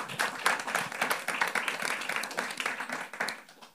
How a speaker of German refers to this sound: Ihr dürft jetzt auch klatschen. Herzlich willkommen.